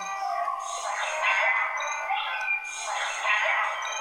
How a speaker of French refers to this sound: Putain, un chien, un chien.